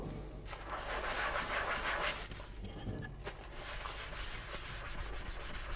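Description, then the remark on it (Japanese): Steady scrubbing of a microwave oven turntable plate being washed up, a continuous coarse rubbing noise with a brighter, harder burst of strokes early on, then an even, rasping swish with no voices. “まず今みんなの好奇心は、お前洗い物終わったって言ってたじゃんっていう、そこだと思うんですけど、今電子レンジのお皿を、あの、ぐるぐる回るところ。”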